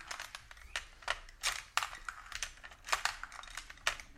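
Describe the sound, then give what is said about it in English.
Rapid plastic clattering and clicking from a toy dinosaur game as a red dinosaur eats plastic balls, irregular bursts of small hard pieces rattling and snapping, quiet, with no voices. “If you're wondering what that noise is, Hungry dinos. The red dino is eating the balls.”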